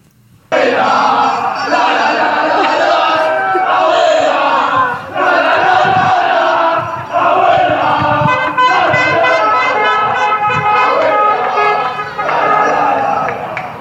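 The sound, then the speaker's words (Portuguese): A large crowd of fans shouts and cheers continuously, a dense roar of excited voices with rhythmic chanting and scattered horn toots, loud throughout with brief dips around the middle. “Quanto tempo a Abuela não passou em casa sozinha, gritando, pra poder ir pra rua e comemorar com, com os netinhos?”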